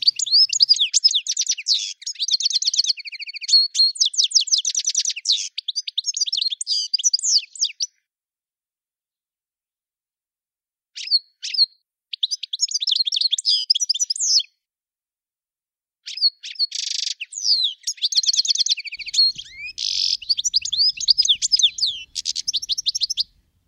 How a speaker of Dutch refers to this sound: om te luisteren naar zijn verhaal achter het geluid ja, van de distelfink.